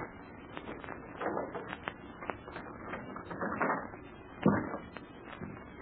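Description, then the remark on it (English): Metallic rattling and scraping as a door bolt is worked open, a string of small clicks ending in a heavier clunk as it slides free. No voices. “Now then, we'll unbolt the door, take her back to the roof, and up and away.”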